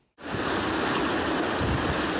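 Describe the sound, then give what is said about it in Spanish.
Floodwater rushes loudly through a street of the Capulín neighbourhood in Álvaro Obregón after the Tacubaya dam overflowed during rain, reaching a metre deep in places, in a steady, dense roar that kicks in abruptly after a split second of silence and churns on without pause, with no voices. “Las calles de la colonia Capulín se convirtieron en verdaderos ríos.”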